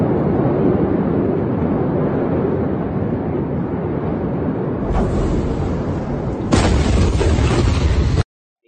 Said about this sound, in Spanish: Dejó un, cráter de 43 metros en profundidad, una vaina así, una vaina loquísima. Ah, no, marico, o sea, la, el detalle no fue la explosión, sino es que la explosión tuvo en conjunto una cantidad de explosivos y eso generó una onda expansiva.